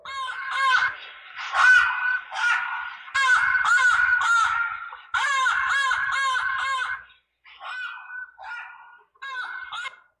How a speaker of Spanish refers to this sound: Hermanos, miren lo que les voy a poner como para que ustedes escuchen y se imaginen. Mire, este es el sonido de un chacal, póngale cuidado.